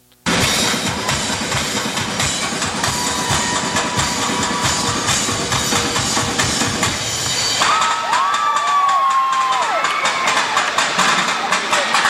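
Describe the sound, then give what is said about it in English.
A live percussion stage show by the 2012 Musical Group of the Year: rapid, driving drum hits pound beneath a loud, cheering crowd. Near the end the low drumming thins out while whistles and shouts rise over the crowd's roar. “now we're going to swing it back in, uh, take you to a live performance of 2012 Musical Group of the Year,”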